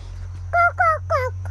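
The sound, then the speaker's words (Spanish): Birds call out three times in quick succession in a rain-soaked countryside garden, short and fairly loud harsh notes, over a steady low background hum, with no one talking. “Sí, cocó son los pájaros, Merlín ama ver los pájaros”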